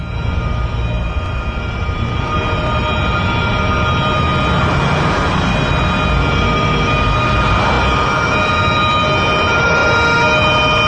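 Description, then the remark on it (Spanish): Several police patrol cars and a police van drive down a street: a loud, continuous rumble of engines and tires, with steady high tones running over it throughout and no voices. “Fuera varios coches patrulla y un furgón policial recorren una calle.”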